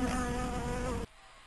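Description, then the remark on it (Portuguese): A bee buzzes steadily with a dense, droning hum and many layered harmonics, fairly loud, then cuts off abruptly after about a second, leaving near silence. “Vai botar uma abelha voando aí?”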